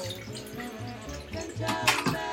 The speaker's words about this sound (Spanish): se me está complicando con una mano cargar agua.